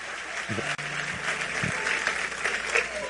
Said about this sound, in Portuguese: Aplauda o Silvio Santos aí.